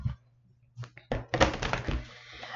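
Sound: shuffling oracle cards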